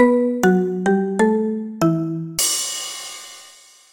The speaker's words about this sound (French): laissez-vous porter par ce gong basse créé par Swan